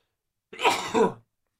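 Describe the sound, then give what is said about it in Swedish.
A single fairly loud sneeze, caused by pollen: a short sharp two-part burst, a breathy intake then an explosive release, lasting under a second with silence around it. “Prosit. Tack.”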